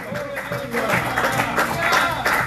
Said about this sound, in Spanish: Le palmas a Dios. Vamos, Dios mío, diga gloria a Dios.